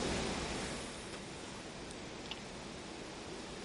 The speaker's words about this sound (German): Das ist doch nicht nur Blätterrauschen. Doch, so. das ist Blätterrauschen und Astgewerfe.